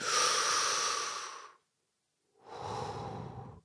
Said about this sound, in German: Okay, wir lehnen uns zurück. Wir atmen tief ein.